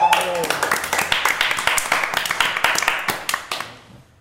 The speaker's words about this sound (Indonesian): Tepuk tangan dulu ya.